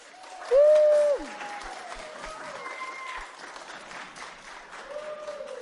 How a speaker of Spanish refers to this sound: ¿Quieres que te aplaudan para que salgas? Pues que griten más fuerte. que aplaudan. Que aplaudan también, pero que griten.